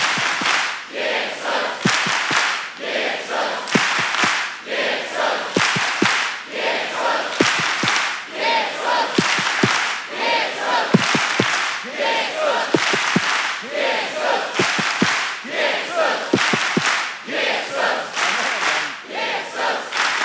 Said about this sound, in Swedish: Och som de gör med sina idoler och som de gör med sina artister så ska vi göra med vår Herre. Och jag vill höra varenda tunga här inne, allt vad ni kan.